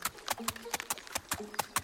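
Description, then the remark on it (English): The hooves of a little billy goat trot in a quick, steady clip-clop across a wooden bridge, about a dozen hollow, knocking steps in under two seconds, fairly loud with no talking over them. “So the little billy goat gruff trotted to the bridge.”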